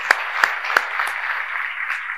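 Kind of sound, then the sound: crowd, loud audience applause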